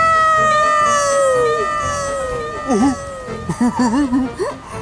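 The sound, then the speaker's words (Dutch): A voice imitates a cat: one long, drawn-out falling meow, then several short wavering meows in quick succession, loud, with an echo-like repetition. “Dan weer kaatst het geluid en dan hoor je het dubbel.”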